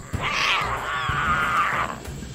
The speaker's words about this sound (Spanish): Estaban practicando rugidos salvajes. Leoncio aclaró su garganta y se unió al coro de rugidos que más que dar miedo, daban ternura.